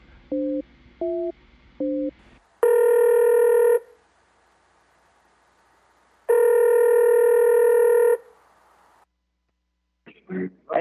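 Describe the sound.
Three quick dialing beeps, then two long, loud electronic ringback tones separated by a pause, as a phone call connects; a voice starts speaking just at the very end.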